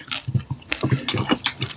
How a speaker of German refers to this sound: Oh, ich habe vergessen, dass ich dann ganz laut crunch.